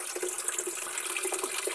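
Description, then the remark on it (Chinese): Water pours steadily into a steamer pot while food is being steamed, a continuous bright splashing and gurgling that holds an even level for the short stretch, with no voices over it. “好，我稍微加一点水，不够。”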